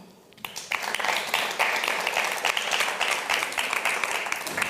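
An audience breaks into steady applause after a brief quiet moment, many hands clapping in a dense, even patter that holds at a constant loudness for several seconds.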